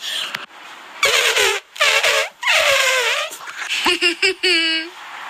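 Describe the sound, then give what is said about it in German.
A voice imitates the trumpeting of the elephant character from a German children's TV show, copying its dubbing voice: three loud, brassy, wavering blasts, then a quick run of shorter honks and a final sustained, higher-pitched trumpet note. “Ey, übrigens, wenn die Sendung mit der äh, Nicht-Ratte ja, ähm, wenn der Elefant, also der Synchronsprecher beim Elefant tot ist oder nicht mehr in Rente geht, wie auch immer, dann werde ich der Neue, denn ich kann das auch.”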